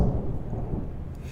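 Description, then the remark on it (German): Thunder rumbles low and steady, a deep continuous roll filling the background with no voices over it; no rain is falling yet. “Hat geklappt mit Donner runterschrauben, ne?”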